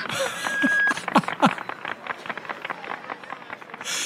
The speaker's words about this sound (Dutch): Dat is het geklap van de originele toespraak van Walt toen Disney het opende.